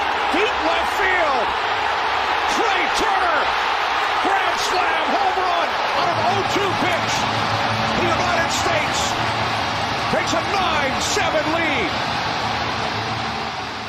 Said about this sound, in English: just hearing that crowd explode and listening to the call there from Fox